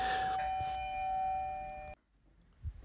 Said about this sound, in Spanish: Bueno, seguimos, no sé si habréis oído el timbre, pero, pero seguimos.